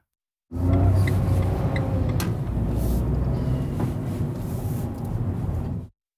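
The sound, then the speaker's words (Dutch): A car drives steadily with a constant low engine rumble and road noise throughout, heard as if from inside the vehicle, with faint clicks and rattles over the hum, as its occupants drive to a street to visit someone. “We besluiten in de auto te stappen en naar Jacob toe te gaan.”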